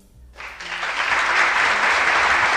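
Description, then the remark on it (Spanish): A canned applause sound effect, played in a studio as a guest introduced as Agatha Christie enters, swells in abruptly after a brief quiet moment. It becomes a dense, steady wash of clapping that stays loud and even to the end, with no voices over it. “que ha entrado en el estudio, que se merece unos aplausos enlatados, nuestra amiga la señora Agatha Christie.”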